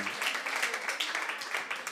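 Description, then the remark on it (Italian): A church audience applauds the Lord steadily, a dense wash of many hands clapping at once, sustained for the whole moment without pause. “Jesus, Vogliamo fare un applauso al Signore.”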